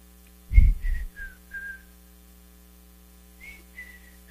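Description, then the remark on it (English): Someone whistles an imitation of a bird's call: a thump, then several falling whistled notes, a pause, and three more notes, against a steady electrical hum. “I guess, but I think it was after choir um, I heard this bird going, I can't whistle.”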